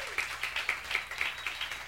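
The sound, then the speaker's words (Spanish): A small crowd claps for a couple of seconds to welcome a guest speaker from Zimbabwe, with sharp, fairly regular hand claps standing out over a steady patter of applause. The clapping is moderately loud and no one speaks. “De Zimbabue, un aplauso a”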